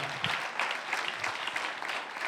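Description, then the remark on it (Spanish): Steady applause from a crowd, given for Jesus Christ during a sermon: a dense wash of many hands clapping at an even, fairly loud level for a couple of seconds, with no voices standing out. “Ah, dale aplauso a Jesucristo.”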